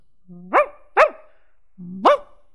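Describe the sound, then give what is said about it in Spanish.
A dog barks three times, two quick barks close together and a third after a short pause, each starting with a low, drawn-out tone before rising into a sharp woof. Nobody speaks. “Reía el pollito cuando corría, que corría el perro cachirulo.”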